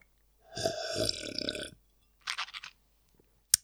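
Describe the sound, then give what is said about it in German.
Someone takes a sip of water: a drawn-out, throaty gulp, a pause, then a quick run of softer swallowing sounds and a sharp little click at the end. No talking. “Ich nehme einen Schluck Wasser, Moment.”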